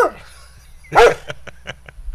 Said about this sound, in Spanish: Me imagino que, en este momento que estamos colocando este audio y nos están escuchando muchos, y si tienen alguna mascota, algún perro, va a pensar que llegó ese perro allá a la casa.